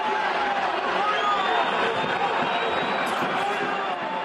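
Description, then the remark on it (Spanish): A large stadium crowd at the Villamarín roars steadily, with many voices shouting at once in a dense, continuous wall of noise and a hostile, jeering chant rising from the stands, twice shouting the racist insult "mono" at Vinicius. “Por dos veces oímos la palabra mono, evidentemente insulto racista lanzado contra Vinicius.”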